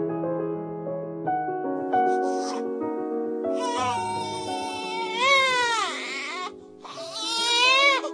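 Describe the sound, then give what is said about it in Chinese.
A baby cries in long, strained wails whose pitch swells and falls, growing louder and more insistent in the second half, with steady low tones sounding underneath. The baby has been crying nonstop until its voice is hoarse. “孩子一直哭，哭到声音都哑了。”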